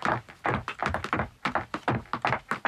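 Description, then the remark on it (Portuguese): Someone walks down wooden stairs, footsteps thudding in a quick run of about a dozen hollow, knocking steps in a steady, slightly uneven rhythm, fairly loud, with no voices. “E a resposta correta é alguém a descer umas escadas de madeira.”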